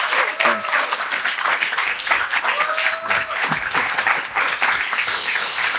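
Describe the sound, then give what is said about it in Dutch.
An audience at the second edition of the Amsterdammers evening bursts into steady, sustained applause for a performer, a dense wash of many hands clapping at an even loudness for several seconds, with a few faint voices and whoops mixed in. “Ik ga je niet vragen om een freestyle te kicken, maar ik ga, ik ga, mijn, publiek, ik ga mijn publiek wel vragen om een geweldig mooi applaus voor jou te hebben.”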